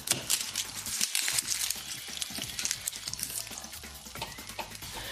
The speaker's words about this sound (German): Die Möhren und die Kartoffeln würfeln, im Öl andünsten